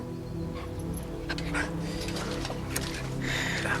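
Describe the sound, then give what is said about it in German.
A dog, Oskar, whines eagerly, wanting to play with Fuchs, on the Wagenburg grounds after dark; its high, wavering cries are mixed with a few short, excited barks over a low, steady background hum. “Du kannst jetzt nicht mit Fuchs spielen.”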